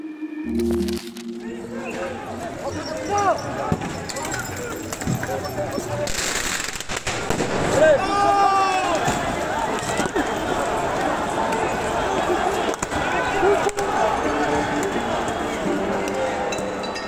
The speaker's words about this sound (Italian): L'audio che avete appena sentito è un audio di uno dei tanti video sulle proteste che hanno bloccato la Francia in occasione della riforma delle pensioni.